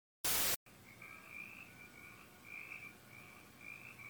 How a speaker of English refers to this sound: The movie starts off with crickets in the soundtrack and a shot of a dark cabin at Camp Crystal Lake in the year 1958.